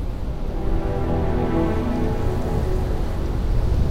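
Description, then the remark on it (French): A storm roars steadily, with dense rain-like hiss over a deep low rumble that holds constant and loud throughout, with no voices. “Enfin, la tempête semble se calmer.”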